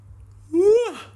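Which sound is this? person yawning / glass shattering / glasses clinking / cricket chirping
person yawning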